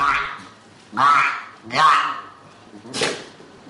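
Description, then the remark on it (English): Bill, an underweight seal pup at a rehabilitation site in a zoo near Athens, barks to the staff three times in a slow, uneven series: loud, hoarse, nasal calls, each about half a second long, with a quieter call just before them. “Now he spends the day issuing barks to the staff who prepare specially designed meals for him.”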